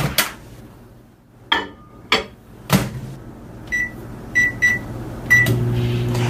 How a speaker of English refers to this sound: So now we take this and we put it in the microwave to warm it up for, until it's warm. So it says three to five minutes.